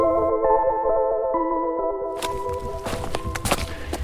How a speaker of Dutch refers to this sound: Ik wandel op de Veluwe door het leefgebied van een roedel wolven. Het is een mooie herfstdag. Het heeft net heel hard geregend en de bladeren glinsteren nog van het vocht. Maar nu schijnt de zon.